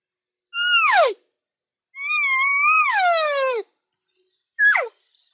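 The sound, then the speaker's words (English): Three high, whining elk calls made on a bite and blow call, with nothing else around them: a short falling one, a longer wavering call that drops off at the end, then a quick final chirp. “And here's another bite and blow.”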